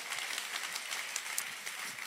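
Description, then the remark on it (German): A crowd at a church sermon gathering, with sites in Erlangen and Ansbach, applauds one another steadily, many hands clapping in a dense, even wash of sharp bright claps, loud throughout with no voices standing out. “Komm mal, vielleicht können wir uns nochmal allen gegenseitig einfach nochmal einen riesen Applaus geben.”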